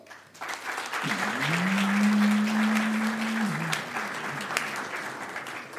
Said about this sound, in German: Jetzt erstmal euer Applaus für die Frage über Schnickschnack Schnuck.